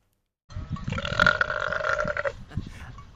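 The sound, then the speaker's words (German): A single long, throaty burp from a sheep, starting abruptly and rumbling for nearly two seconds with a tonal, groaning quality, followed by faint low background noise. “Wir spielen die Auflösung. Ein Schaf.”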